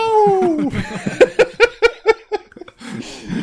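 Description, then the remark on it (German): A person imitates a cat's meow with a drawn-out, falling vocal cry, followed by a quick series of rhythmic laughing bursts and a soft breathy exhale. “Miau!”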